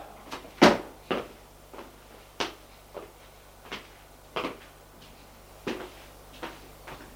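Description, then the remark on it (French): Someone knocks several times on his father's bedroom door at 3 in the morning to wake him, about a dozen dull, sharp raps in an uneven rhythm, the first one loudest and the rest moderate, with no voices. “frappe à la porte de son père, frappe plusieurs fois.”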